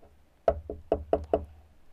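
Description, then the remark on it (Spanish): Five sharp knocks on a door in a quick, slightly uneven rhythm, moderately loud, with a low hum in the background and no voices. “Fui con mis papás, no, ahí iba. Toco.”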